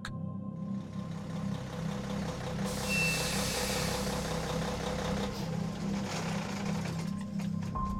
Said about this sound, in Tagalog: Hanggang sa tumigil na ang truck sa pagandar.